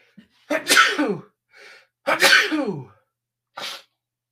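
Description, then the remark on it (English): Two loud, explosive sneezes about a second and a half apart, each preceded by a quick sharp inhale, with no talking. “I was just taking a little sneeze break.”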